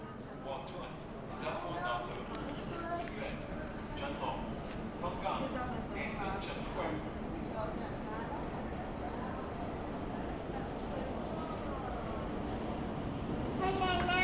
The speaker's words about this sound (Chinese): 下一个是姗姗来迟的地铁。